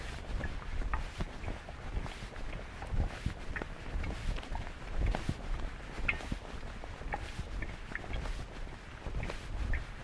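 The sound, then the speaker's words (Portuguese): Strong wind buffets the microphone in a constant low, rumbling roar, with faint footsteps and scattered clicks underneath as someone walks outdoors down Padre Severino street. No one speaks. “aqui descendo a rua Padre Severino, vento danado.”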